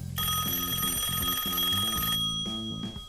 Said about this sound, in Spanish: Un día sonó el teléfono de línea.